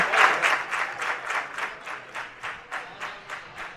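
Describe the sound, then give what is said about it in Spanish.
A football stadium crowd in the general stand applauds Alberto Martín, number 6 of Unión Deportiva Melilla, in a steady, rhythmic beat, about three claps per second, loudest at the start and then holding even. No voices are heard over it. “El lanzamiento de Alberto Martín, el dorsal número 6, el mariscal de esta Unión Deportiva Melilla, de esta nueva Unión Deportiva Melilla, que recibe los aplausos de la grada de general.”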